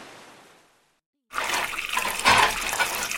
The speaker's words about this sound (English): Dad washes the dishes in the sink.